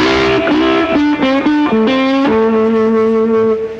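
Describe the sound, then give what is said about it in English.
An electric guitar, with its pickup selection set for a very thin, trebly tone and played with a flat pick, plays a short run of quick, slightly distorted notes, then settles on one sustained note that rings out and fades. No one speaks. “you get it very, very thin, like this.”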